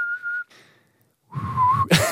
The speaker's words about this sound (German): du kannst nicht pfeifen, daran scheitert es.